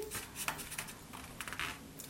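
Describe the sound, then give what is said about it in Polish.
A typewriter's large platen roller pushed back to the start of the line and the small roller turned to lower the paper one line: a quiet run of light, dry ratcheting clicks, slightly irregular, with no voices. “Żeby przesunąć się do następnej, do następnej linii, przesuwamy wałek do, do początku, ten duży wałek oczywiście, i małym wałkiem obniżamy jedną linijkę możemy obniżyć jeszcze jedną, żeby było czytelniej.”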